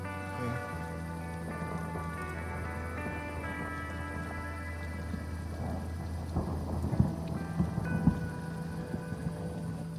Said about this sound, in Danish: Det tordner. Det tordner rigtig meget af lyner. Ej. Uh. Men det regner ikke.